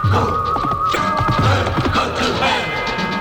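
A steady, busy rumble of hoofbeats pounds along continuously on a track, with thuds and scuffs over a dense background noise and a faint high whine, sounding like several horses galloping.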